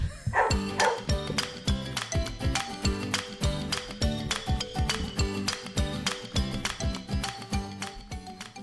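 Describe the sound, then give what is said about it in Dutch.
A rapid, steady series of loud dog barks repeats in a regular, beat-like rhythm over sustained musical tones, filling the whole stretch without pause and with no talking. “En laat dat nou net toevallig het hondenras van de week zijn.”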